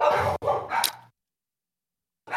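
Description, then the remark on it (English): Dogs bark loudly, a quick burst of two or three barks with no voices over them, followed by a pause of silence before another bark starts at the very end. “sorry about the dogs.”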